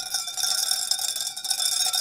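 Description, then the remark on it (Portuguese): A mug that came with a keychain clanks and rattles continuously with a bright, metallic ringing much like a cowbell, steady and fairly loud throughout, with no voices. “Para que esse barulho está parecendo uma aia. Não dá nem para brincar, né? Está parecendo uma vaca. Tá sino de vaca.”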